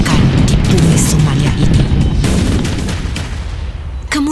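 Heavy anti-aircraft gunfire from militia cracks in rapid, overlapping bursts over a thick, churning roar of helicopter rotor blades, loud and chaotic throughout before easing slightly near the end.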